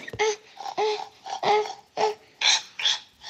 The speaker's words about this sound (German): Das war die Sau. Das hier.